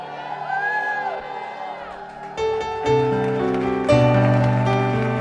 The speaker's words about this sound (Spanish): Voces de júbilo. Aleluya.